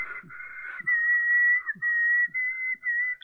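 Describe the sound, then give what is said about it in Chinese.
Someone in the neighbouring room number eight whistles a sustained tune and hums softly; it starts breathy and soft, then becomes a clear, steady high tone broken into a few held notes, with faint low thumps underneath and no talking. “突然，就在我话音刚落下的那一刻，隔壁的八号房中啊传来了吹口哨和小声的哼歌的声音。”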